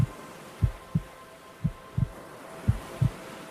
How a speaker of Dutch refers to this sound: Het brommen en broemen en zoemen en suizen, de klop van je hart en het stromen van bloed. Zoals je in schelpen de zeeën hoort ruisen, kan je in je oren horen dat je lichaam het doet.